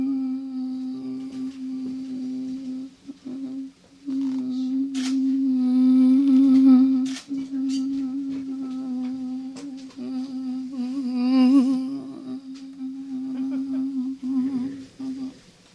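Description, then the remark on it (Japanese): A voice imitates a buzzing mosquito with a steady, droning hum that holds for about fifteen seconds, wavering and swelling slightly as it moves back and forth between the left and right ears. “これハエ的なものを表現してるんですか 蚊とか蚊か蚊みたいなもの音を表現ちょっと確かにぐっとこう動いてらっしゃるんだなっていうのはなんとなく感じで分かりましたけどね”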